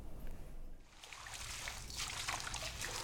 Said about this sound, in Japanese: 地元のあの山ぶどうを今洗ってる音なんですが梅の戦場と音だけ見れば、あのー、なら変わるところはないんですが丹精込めて作った山ぶどうからあのエキスを抽出して山ぶどう酒を作ろうという試みで今年度初になります